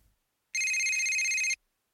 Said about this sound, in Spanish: Ve a contestar, me pidió Sergio una tarde que sonó el teléfono de su oficina a los pocos días de su boda.